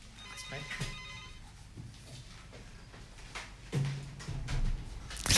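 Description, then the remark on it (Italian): A telephone rings with an incoming call, a soft electronic tonal ringtone in the opening second or so, followed by quiet background clatter and faint, muffled voices. “E mentre prendiamo la telefonata, provo ad andare avanti con, um, con il ragionamento.”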